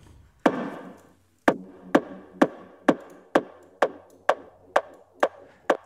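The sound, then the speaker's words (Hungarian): A run of sharp wooden chopping or tapping hits, about ten in a steady rhythm after a short pause, each one trailing off into a long reverberant wash from an added reverb effect, with a slight distortion effect also applied. No voices. “Tegyünk egy reverbet azt mondja, hogy így mondjuk.”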